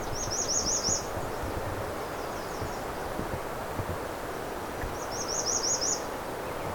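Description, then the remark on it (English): Two short bursts of high, thin chattering calls from a flock of blackbirds flying by, one near the start and one near the end, over a steady rustling, windy outdoor background with no talking. “I've got a whole flock of some kind of blackbird going by here.”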